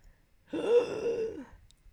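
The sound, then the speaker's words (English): A person imitates a raspy, strained inward breath, like an asthmatic gasp. The single wheezing intake lasts about a second, is fairly loud, and comes alone with no talking. “Yeah, it, it was inward breathing”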